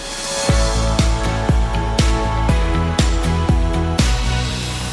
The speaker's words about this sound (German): Man hört es ja an der Musik im Hintergrund. Wir sind tatsächlich an der Strandbar